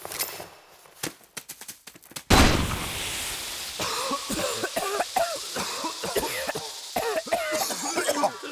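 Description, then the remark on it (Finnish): A sharp burst as a tear gas grenade is thrown at recruits' feet sets off a chaotic stretch of several people coughing and retching, overlapping harsh gasps and hacking over a hissing background, with scattered sharp clicks before it. “Kaikki rojahtavat vuorotellen maahan yskimään, oksentamaan ja huutamaan siitä kirvelyn tunteesta.”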